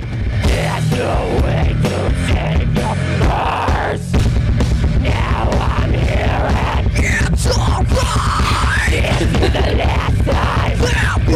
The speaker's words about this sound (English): Oh man. Here comes the big screams. You ready?